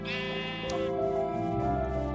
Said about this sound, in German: Ja, obwohl, dann kill ich nochmal das eine Schaf für das Bett.